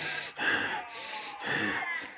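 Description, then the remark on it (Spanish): A voice imitates a motorcycle racer's heavy breathing inside a helmet, with about three loud, airy breaths rising and falling in a steady rhythm, each one noisy and forceful. “Tu respiración es así aumenta.”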